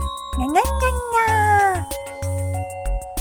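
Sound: person imitating cat meowing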